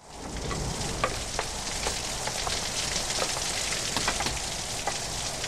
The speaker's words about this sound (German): Und wirklich ganz ehrlich, bei keiner anderen Szene am Anfang bin ich so gebannt gewesen wie bei dieser. Sehr atmosphärisch mit dem Regen und dem Gewitter.